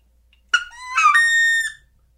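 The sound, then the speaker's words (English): A person vocally imitates a perched wood duck's call: a short sharp squeak, then a rising, drawn-out squealing note held for about a second, fairly loud, with no talking. “A woody's flying. He only does that when he's flying. When he's flying. Mm-hmm. If he's sitting, he'll go.”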